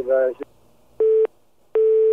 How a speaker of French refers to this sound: Ah, il y a une coupure téléphonique. Bon, ben, je pense que ça doit être. Il a dû avoir un souci avec son téléphone.